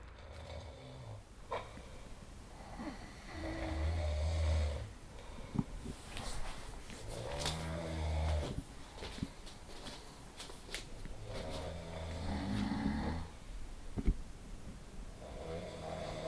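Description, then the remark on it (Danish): Snoring from two sleeping men, a Frenchman and a Korean, overlapping rough, rasping breaths that rise and fall unevenly, with occasional snorts and rustling. No one speaks. “snorkekamp i gang lige nu mellem franskmanden og koreaneren.”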